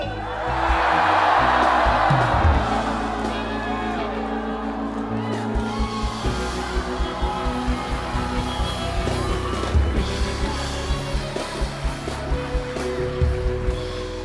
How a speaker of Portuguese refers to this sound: Pessoal, mas grita e grita com força, pelo menos uns três, quatro, e grita para ele assim: Não!